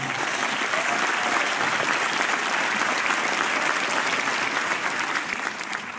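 A crowd applauds steadily, a dense, even wash of many hands clapping at a constant loud level for several seconds, easing slightly toward the end.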